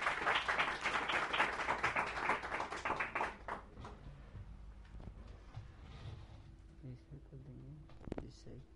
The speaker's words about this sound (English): And please have a big round of applause and thank you.